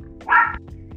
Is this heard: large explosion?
no